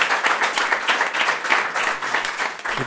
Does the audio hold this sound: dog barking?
no